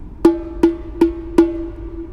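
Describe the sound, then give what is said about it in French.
Four evenly spaced open low strokes on a tambourine skin, each a deep booming thump with a sustained resonant ring that carries into the next hit, fairly loud with no talking. “Et si je fais le doom,”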